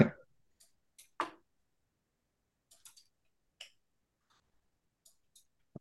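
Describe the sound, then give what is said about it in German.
Sparse, irregular key clicks tapped out on a keyboard, with a couple of louder thumps among quieter taps and long pauses between them, with no talking. “Ja, da müssen wir jetzt mal kurz tippen.”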